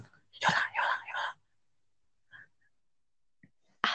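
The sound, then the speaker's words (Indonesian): A person fakes snoring with three quick, breathy, rasping snorts, then quiet with faint stray noises and one more sharp breathy burst at the end. “Nanti tidur dulu boleh. Ngorok dong ngorok.”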